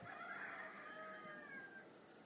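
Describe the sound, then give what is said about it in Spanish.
A rooster crows once as dawn is about to break, a single drawn-out call that trails off after nearly two seconds, faint over a steady hiss of background noise. “Sí, sí, los Isaías nos dicen que ya está a punto de amanecer.”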